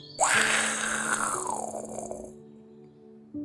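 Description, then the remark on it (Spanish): A lion's thunderous roar erupts in one loud, raspy burst, rumbling for about two seconds before fading away over a soft, steady low hum, with no talking. “Pero el león, que era el rey de la selva, respondió con un estrepitoso rugido.”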